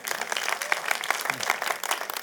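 A crowd applauds steadily, many hands clapping in a dense, continuous patter that stays fairly even and moderately loud throughout, with no one speaking.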